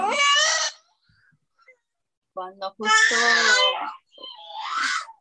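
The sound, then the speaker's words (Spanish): A baby cries and screams in three loud, high-pitched wailing bursts separated by pauses, with an adult voice briefly speaking between them. “cuando justo él nació, estaban todos gritando, así como él estaba gritando ahorita, así todos estaban gritando en la habitación.”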